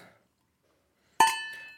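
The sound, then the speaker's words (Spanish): Glasses clink together in a toast: one bright, ringing strike that lingers and fades over about half a second. A faint voice precedes it, then quiet. “Salud.”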